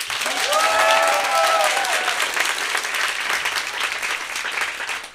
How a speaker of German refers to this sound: Also bitte alle einmal klatschen, die für die Schildkröte sind.